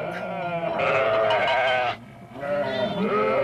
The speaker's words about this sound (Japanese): お前をここに置き去りにはしないよお前の泣き声が聞こえたからね私はいつでも羊たちを助けに行くつもりだよ